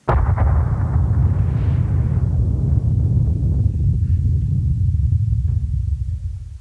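A massive volcanic eruption roars continuously, a deep rumbling blast with crackling bursts on top that slowly settles into a low, sustained thunder before cutting off. No voices.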